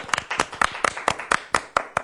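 Steady rhythmic handclapping, about nine sharp claps at an even pace of roughly four per second, fairly loud and crisp with no voices over it.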